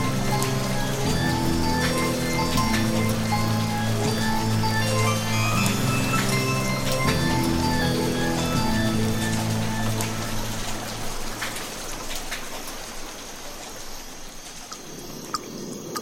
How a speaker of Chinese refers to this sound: 这时，忽然吹起一阵风，又刮起一阵雨，雨滴不断不断的拍打着他们。